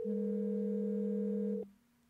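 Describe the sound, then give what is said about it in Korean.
A sky-blue mobile phone inside a bag rings when called, with a steady, electronic two-pitch tone that holds unbroken for about a second and a half, then cuts off abruptly. Fairly loud, with no voices. “A의 여자친구에게 전화를 한순간 울리기 시작한 의문의 휴대폰.”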